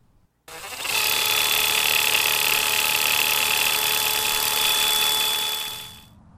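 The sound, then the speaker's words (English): A powered quick-cut greens harvester runs on a farm at harvest with a steady, high-pitched electric whir and a bright hiss, holding level for several seconds before winding down. No one speaks. “And also, well, listen to the quick cut and then the scissors played one after the other.”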